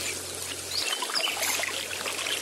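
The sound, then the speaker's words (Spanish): Gentle water trickles and laps steadily as a canoe crosses a slow, calm river. A soft, continuous flow with light splashes and no voices. “o el de una canoa cruzando un río lento y apacible que apenas sí la mueve entre el caudal.”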